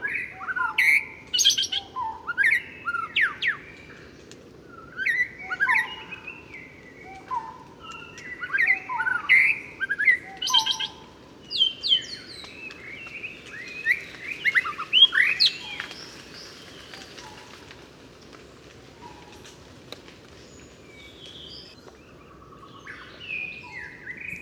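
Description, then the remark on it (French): A white-rumped shama, a black bird with a very long tail, sings rich, varied whistled phrases in bursts over about twenty seconds, clear, while barbets call steadily in the background over a low forest hum in Cambodia. “Alors bien sûr, c'est un oiseau au chant merveilleux, incroyable. Et derrière, on entend les, les barbus”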